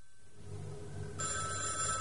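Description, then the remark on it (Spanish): A telephone bell rings in the narrator's aunt's house, starting as a low hum before breaking into a loud, bright, continuous metallic ring. No voices are heard. “No habían transcurrido más de 20 minutos desde que dejamos a María en su automóvil cuando en casa de mi tía sonó el teléfono.”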